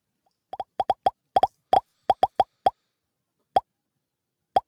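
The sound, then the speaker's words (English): A quick series of bright, close popping sounds, about a dozen crisp plops coming in uneven clusters, then thinning out to a few scattered pops with silence between them. “So let's pop it up one last time.”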